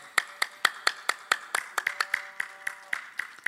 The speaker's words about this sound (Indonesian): Mereka tepuk tangan tidak berat. Pelan-pelan tapi